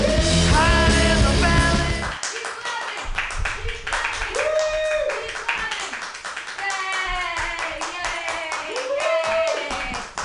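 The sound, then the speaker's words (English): An audience claps in dense, steady bursts on request, after being told to clap, with loud shouts and cheering voices rising over it and a strong low rumble at the start. “I asked them to clap, and they did that.”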